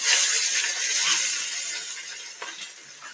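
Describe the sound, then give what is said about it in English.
Individual strips of bacon, laid out separately without overlapping, sizzle in a pan with a steady, bright hiss that holds for about three seconds, fading slightly toward the end, with a few sharp crackles and pops near the close. No one speaks. “Oh, it sizzle.”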